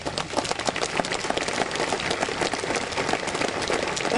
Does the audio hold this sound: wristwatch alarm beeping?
no